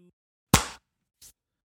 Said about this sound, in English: Let's clap. Ready? Okay. we get back away from the microphone. Five, four, three, two.